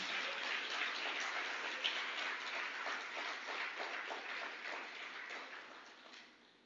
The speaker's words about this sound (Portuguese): Se você crê, aplauda ao Senhor Jesus.